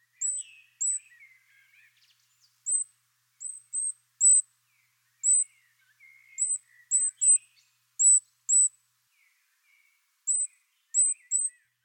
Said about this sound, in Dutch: Hij heeft een heel hoog zacht roepje. En helaas is het zo dat eh, veel mensen met wat oudere oren of wat minder goede oren het niet kunnen horen. Ik laat een fragmentje horen en ik ben benieuwd of jij het goudhaantje hoort.